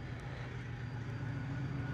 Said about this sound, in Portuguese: Outro comboio, peço imensa desculpa.